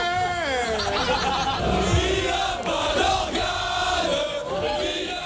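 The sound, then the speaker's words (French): A rowdy crowd of drunken visitors at a feria-style festivity chants and shouts together, many voices overlapping in loud, continuous sing-song calls and whoops with some laughter mixed in. “Et sauf que vous l'entendez, pour certains visiteurs, eh bien, feria rime souvent avec alcool à gogo. Ça devient un peu une beuverie cet endroit-là.”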